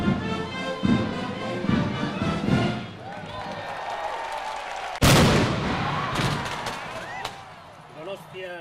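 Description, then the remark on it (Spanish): A single ceremonial cannon shot booms loudly partway through, marking the start of an eight-day festival in the Basque Country, its blast rolling and echoing away over crowd noise, after a stretch of the traditional artilleryman's song sung in the open air. “ya en plena Agusia, El tradicional canto del artillero y el estruendo del cañonazo eran la señal de salida para estos ocho días de fiesta”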